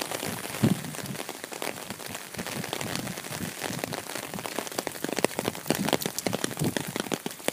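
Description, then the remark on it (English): Steady rain patters onto a hard surface, a dense mix of individual drops and sharper splashes continuing throughout with no voices. “It's, it's another rainy day.”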